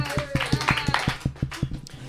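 A short burst of steady hand clapping on cue at the end of Act One of a comedy piece, about a dozen sharp claps in an even, quick rhythm at moderate loudness, with some murmuring voices faintly underneath.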